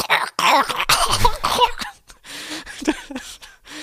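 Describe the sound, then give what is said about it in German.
A voice imitates the glitching weapon sound of a lagging video game's zombie mode with harsh, raspy bursts of breathy noise, loud and choppy for about two seconds, then trailing off into quieter sputtering fragments. “Da geht gar nichts mehr kannst dich nicht mehr bewegen, der Sound ist komplett verbuggt, also du hörst gar keine Zombies mehr, du hörst nur noch von der Waffe so ein”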